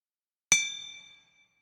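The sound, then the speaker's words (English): A single hammer blow rings out on a metal blade at a forge, a sharp strike followed by a bright metallic ring that fades over about half a second, with nothing else around it. “And as you start hammering away, you just feel like you get bungeed to yourself.”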